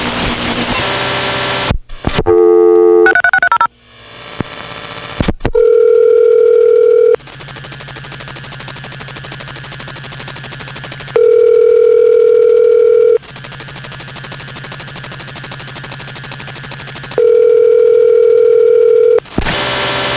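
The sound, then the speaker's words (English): Steady electronic automatic jamming tones, generated by a computer, switch on and off in a repeating cycle, each held for about two seconds, preceded by a brief burst of noisy, shifting signals. No voices, just loud, boring, mechanical beeping. “Now I'm going to let you hear what the automatic janning itself sounds like.”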